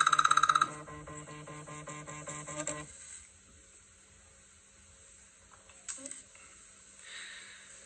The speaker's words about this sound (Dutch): Ja, dat was mijn telefoon. Ik dacht dat ik niet gebeld kon worden als ik online was. Ik kan gewoon gebeld worden als ik online ben, jongens.